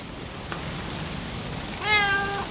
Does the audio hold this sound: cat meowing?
yes